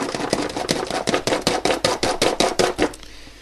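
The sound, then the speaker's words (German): An egg, with a small drop of water added, is beaten briskly with a fork in an elongated baking dish, a fast, even train of about fifteen sharp clicking taps, fairly loud, with no talking, stopping abruptly near the end. “Mal eben mit der Gabel ordentlich durchschlagen.”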